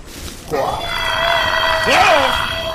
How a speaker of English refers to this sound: It sounds like a big bird.